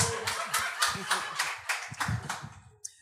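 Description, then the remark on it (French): A live audience bursts into scattered clapping and laughter, the applause rising in uneven waves with chuckles mixed in, then tapering off near the end. “J'aimerais ça savoir, par applaudissement, qui ici que votre mère est tombée enceinte par accident pour vous avoir?”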